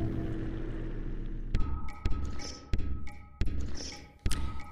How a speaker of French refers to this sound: Et voilà, vous découvrez en exclusivité l'habillage de ce festival brouillage qui euh, se déroulera toute la semaine prochaine euh, sur l'antenne euh, de Radio Campus Paris et au théâtre de la Loge.